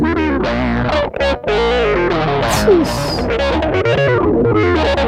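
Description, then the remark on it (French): A loud, heavily distorted synth plays a dense, buzzy line whose resonant filter sweeps up and down in a wobbling cycle, with sharp whistling peaks cutting through, and no talking over it. “Il y a un LFO dans le truc, attends, vous entendez Il y a un filtre, il y a de la résonance là, j'entends.”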